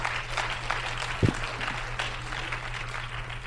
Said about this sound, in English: Would you clap your hands to the Lord and thank Him with me together?